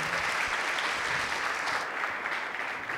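Steady audience applause, a dense wash of many hands clapping at a constant loud level for a few seconds, with no voices standing out.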